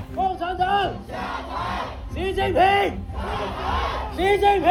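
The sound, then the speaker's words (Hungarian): A protest crowd at a weekend demonstration in a large Chinese city against the zero-Covid policy chants in unison, repeating a rhythmic slogan in loud, rising and falling bursts with brief pauses between phrases, many voices blending together. “Tüntetések voltak Kína több nagyvárosában a zéró Covid politika miatt a hétvégén.”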